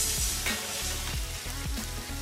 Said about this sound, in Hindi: अब हम इनको धीमी आंच पर तलेंगे हम्म तो अब हो गया हमारे करेले करारे और आप चम्मच की हेल्प से इसको थोड़ा थोड़ा सा मतलब हिलाते रहें जो साइड नीचे की तल जाए उसको थोड़ा सा पलट लें अदर साइड को तेल की तरफ कर दें तो उस साइड भी तल जाएगा